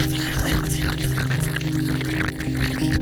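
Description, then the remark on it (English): A voice imitates the crackly, fizzing bubbling heard inside clogged ears, like hydrogen peroxide bubbling up in them, a steady hissing effervescence with low tonal hum underneath, fairly loud for a few seconds. “You feel uh, like when your ears are super clogged up and then you pour hydrogen peroxide or something in there and it like bubbles up crazy like insane bubbles.”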